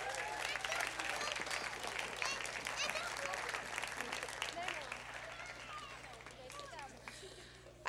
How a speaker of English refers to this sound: Okay, come give them a round of applause.